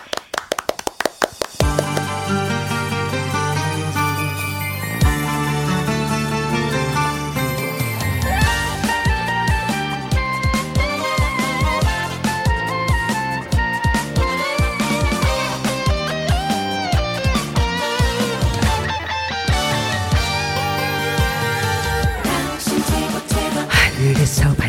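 A requested song's instrumental intro plays live on a Korean radio show, steadily for the whole stretch, with a bright melody over a sustained bass line and sharp rhythmic accents, loud and consistent, with no singing or talking.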